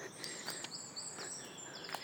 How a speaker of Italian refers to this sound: Infatti sono al parco dove ci sono gli alberi, e le piante e si sentono tanti uccellini che cantano sugli alberi.